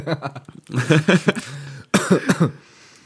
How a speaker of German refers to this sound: Ja, ich dachte jetzt gerade vorhin auch, du hast gerade gehustet einfach. ich habe mich gefragt, darf ich jetzt husten? Denken die Leute, dass wir Corona haben?